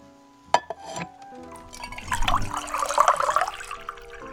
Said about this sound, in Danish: Inden vi begynder den her historie, skal du lige forestille dig at fylde et glas med vand. Et helt almindeligt glas postevand.